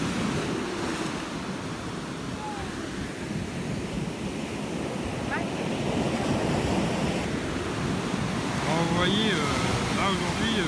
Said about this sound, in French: il y a des grosses grosses vagues.